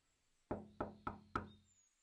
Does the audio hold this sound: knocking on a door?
yes